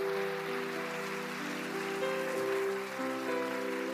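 Steady, dense applause at a Father's Day church service, for all fathers willing to pray for their families, fills all four seconds, a thick crackling wash of many hands clapping, with sustained keyboard-like musical tones holding and shifting underneath.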